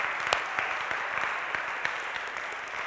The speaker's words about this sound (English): welcome to those of you who ran the Twin Cities Marathon and the uh, 10 miler last week, can we give a round of applause to those folks? Yeah.